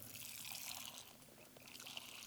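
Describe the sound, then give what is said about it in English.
Hot coffee pours steadily into a coffee mug, a continuous trickling splash lasting a couple of seconds, fairly quiet with no talking. “a way to splash yourself with some nice hot coffee, or in my case, because my doctor, a nice hot cup of decaf, mmm, brown water.”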